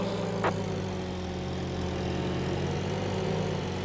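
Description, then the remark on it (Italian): The small, buzzy engine of a little car in a racing video game drones steadily, sounding much like a lawn mower, with a brief sharp click near the start and no talking. “però essere tra i primi tre con una macchinetta di questo genere che sembra un tagliaerba”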